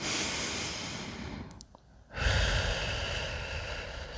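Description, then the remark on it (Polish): Deep, breathy exhalations blown through lips pursed like a little straw in a breathing exercise: a long airy breath, a brief pause, then a stronger, louder rush of air that carries on steadily. Fairly loud, with no talking. “No a teraz zresetuj to uczucie, biorąc kilka takich oddechów.”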